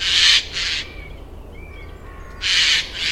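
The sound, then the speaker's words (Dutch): Harsh, raspy screeches of a Eurasian jay (Garrulus glandarius): two hoarse calls, a brief quiet gap with faint background, then two more rasping screeches, loud, with no talking. “Ja, zijn wetenschappelijke naam is Garulus glandarius.”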